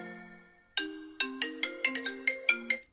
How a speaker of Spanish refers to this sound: Que sigues utilizando el mismo tono de llamada de toda la vida.